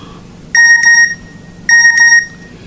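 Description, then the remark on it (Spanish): A phone message notification beep sounds twice as a message arrives a little after ten at night, each a short bright electronic double chirp with a lingering tone, clear, separated by about a second of quiet room noise. “Debe ser, ¿ves? Acá está el mensaje.”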